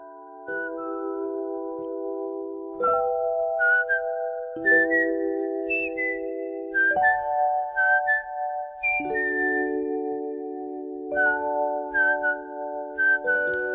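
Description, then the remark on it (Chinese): A sergeant whistles a lively, melodic tune alone in his car, with clear bright notes sliding between pitches in short phrases over steady sustained tones that shift every couple of seconds. “上士再次吹起口哨，感受到血液里的欢快在翻腾。”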